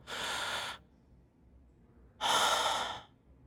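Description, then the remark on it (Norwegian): A person demonstrates trying to draw breath: two loud, airy breaths, each lasting under a second, separated by a short quiet pause, with no talking. “Eller det, det var noe som jeg eh, reagerte på, så jeg ville liksom trekke pusten sånn”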